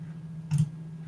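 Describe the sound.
A single sharp tongue click, made with the mouth as a sound effect imitating a horse's hoof, stands out clearly over a low, steady electrical hum. No one speaks.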